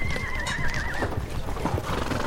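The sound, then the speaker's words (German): A horse of French and Belgian occupying troops in the Ruhr region, Germany, whinnies with a high, wavering cry, and hooves clip-clop steadily underneath amid a busy outdoor rumble, loud throughout. “60.000 französische und belgische Soldaten besetzen das Ruhrgebiet mit Pferden, Wagen, Panzern und Kanonen.”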